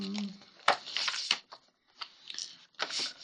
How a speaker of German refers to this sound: Ich muss auch erstmal für die Goblins würfeln.